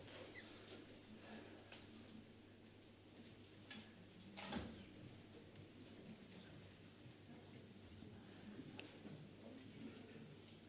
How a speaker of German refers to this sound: Ihr könnt viel blättern. Ich muss geduldig sein, dass ich kein Blättern mehr höre.